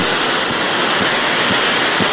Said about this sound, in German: Ähm, wir können ja mal den Mode drücken und äh, dann versuche ich mal, was wir mit dem Radio, ob wir da irgendwie was mit zu hören bekommen. Wahrscheinlich nicht, es wird Rauschen sein. War klar.